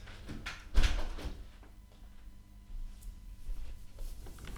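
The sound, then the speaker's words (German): A window is pushed shut with one sharp, heavy thud as all windows are closed against growing car noise, followed by a few faint knocks and a low background rumble. No one speaks. “alle Fenster zugemacht.”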